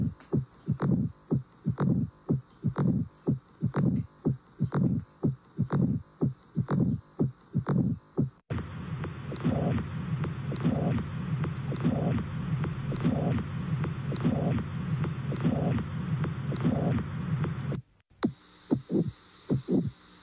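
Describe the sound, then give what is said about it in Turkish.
Three short recorded heart sounds of the kind physicians use for diagnosis play one after another: steady, evenly paced thumping beats, with the middle section carrying a continuous whooshing noise beneath the rhythmic thuds. No one speaks. “Üç ses arasındaki farkı tabii hekim olmayacağınız için hani böyle dikkatle dinleyip e, siz de teşhis koyun demiyoruz ama işte hekimler böyle teşhis koyuyorlarmış.”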